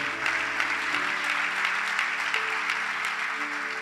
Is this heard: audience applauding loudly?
yes